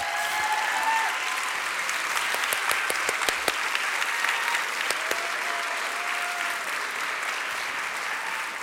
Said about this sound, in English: If you're a member, if you're a community group leader, could you just stand up for a second? We want to give you a round of applause and acknowledge you.